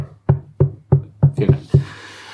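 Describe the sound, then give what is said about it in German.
Six dull knocks thud against a wall or door at a steady pace, the last two coming closer together, followed by a faint rustling hiss; no one speaks. The neighbors are knocking to ask for less noise during a party. “Äh, das waren die Nachbarn, die geklopft haben, wir sollen leiser sein.”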